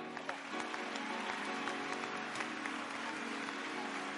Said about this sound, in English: Let's give Lord a hand clap.